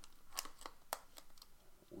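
Quiet crinkling and tearing of packaging as an Easter egg is opened, a handful of sharp, papery crackles spread unevenly over a couple of seconds, close by.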